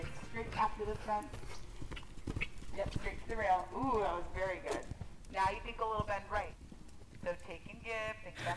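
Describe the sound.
Horse hooves clip-clop in a steady, uneven rhythm of sharp thuds at a riding paddock where jumping is taking place, while people talk over them throughout.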